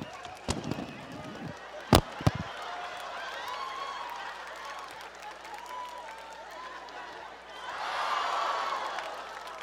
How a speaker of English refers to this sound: Give her a round of applause. Give her a round.